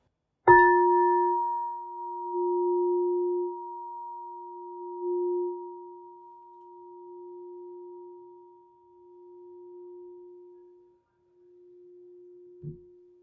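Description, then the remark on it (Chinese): A crystal singing bowl is struck once, giving a pure, steady low tone with a faint higher overtone that swells gently and rings on for many seconds. A soft knock comes near the end. “这是现在这是水晶波的声音。”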